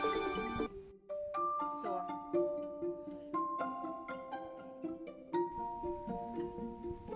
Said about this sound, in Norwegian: en telefon, en liten avbrytelse.